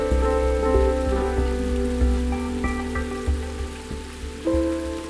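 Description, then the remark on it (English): Steady rain hisses continuously, mixed with sustained tonal music and soft low thuds recurring every second or so, all fairly loud and even throughout, with no voices. “Rain fell on the earth for 40 days and 40 nights.”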